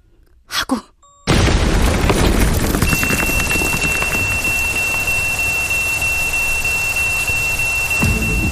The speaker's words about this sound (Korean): 그때, 내 등 뒤에서 터진 거다. 폭탄이, 펑.